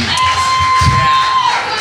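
A loud crowd shouts and cheers continuously, voices overlapping as they call out song requests to the stage, with a steady high whistle-like tone held through most of the moment.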